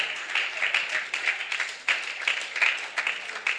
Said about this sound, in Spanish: Brindemos gloria al Señor y si ese aplauso es para el Maestro, que sea más fuerte en esta hora.